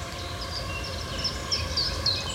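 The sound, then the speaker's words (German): A steady, shrill whining hum of hundreds or thousands of swarming mosquitoes while bushwalking in Brandenburg, Germany, with high wavering tones drifting over a constant low droning bed of noise. No one speaks. “Und was ihr da hört, dieses komische Sirren, das sind Mücken.”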